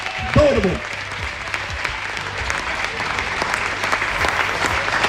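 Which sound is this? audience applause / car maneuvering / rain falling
audience applause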